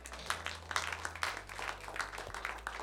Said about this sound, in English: Clap for the Lord Jesus.